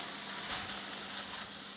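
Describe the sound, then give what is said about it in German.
Food sizzles loudly and steadily in a heavy pan, a dense crackling hiss with a brief surge partway through as the contents are tossed back and forth. No voices. “ja, aber da braucht man viel Gottvertrauen in die richtige Pfanne. Ja? Weil das ist ja wirklich kräftig, die Bewegung.”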